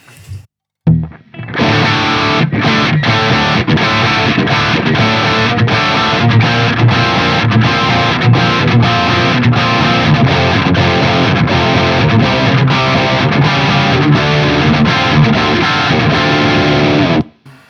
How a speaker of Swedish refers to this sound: så här låter den distade kanalen.